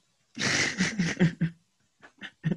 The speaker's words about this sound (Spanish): Perdón, no, pretendo que me escuchen bostezar, pero es algo que, le sucede al, cuerpo humano cuando, cuando duerme una horita de más.